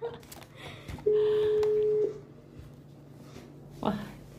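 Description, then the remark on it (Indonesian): A phone call tone as someone calls an interviewee: one steady electronic beep holds for about a second, then after a pause a short ringing burst starts, with faint background noise throughout. “jadi kita telepon narasumbernya wah narasumber yang lama guys”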